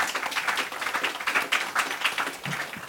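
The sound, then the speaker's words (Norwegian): An audience at a panel event on gene therapy applauds to welcome a panel guest from the Bioteknologirådet, in a dense, steady patter of many hands clapping, holding an even, moderate loudness for about three seconds with no voices on top. “Og så er det fint å klappe, folkens!”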